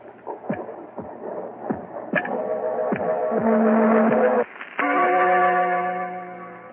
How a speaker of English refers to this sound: I killed him. And that noise you hear is his heart.